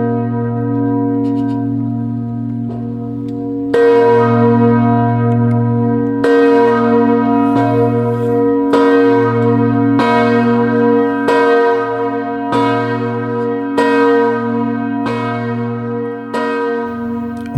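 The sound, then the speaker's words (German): A single church bell tolls steadily at 3 p.m., struck about every two and a half seconds, each deep ring blooming and lingering into the next with a long, resonant hum; no voices. It rings every day at the Protestant Church of Reconciliation at the Dachau concentration camp memorial in Germany, sounding over the grounds of the former camp. “15 Uhr an jedem Tag läutet diese Glocke.”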